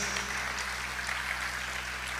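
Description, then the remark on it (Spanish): An audience applauds steadily in praise of the King of Kings, a dense wash of many hands clapping at an even, sustained level for the whole couple of seconds, with no voices over it. “Dale un fuerte aplauso al Rey de Reyes.”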